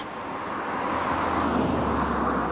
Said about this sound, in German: Ein Auto, das durch die Natur brettert. Leichter Wind, ein kleiner Bach, der im Hintergrund plätschert.